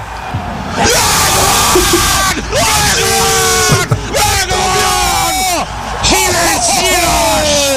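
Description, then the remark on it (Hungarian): Loud, excited celebratory yelling after a darts throw lands, with rising and falling whoops over a roaring, cheering crowd. It stays intense and continuous for about eight seconds, with only brief dips. “A harmadik hát ilyenkor, ilyenkor még jó, hogy hosszú a, a általában füleseknek a madzagja, mert ilyenkor ugrabugrálás meg őrjöngés van.”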